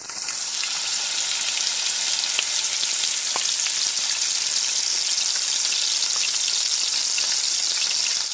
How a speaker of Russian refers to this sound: Дайте им поготовиться всего одну минуту и добавьте туда соломку картофеля и перцы, которые мы тоже нарезали соломкой. Увеличьте огонь до большого и обжаривайте, обжаривайте в течение 30 секунд, перемешивайте